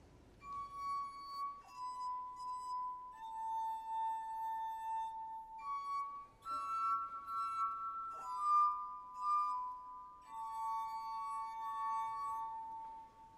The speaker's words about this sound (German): hat seine musikalischen Gläser mit unterschiedlich viel Wasser gefüllt und reibt nun gekonnt über ihren Rand. So entstehen nämlich die Töne. Jetzt hört man genau hin, wie das klingt.